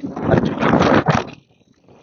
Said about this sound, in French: désolé s'il y a un peu plus de vent.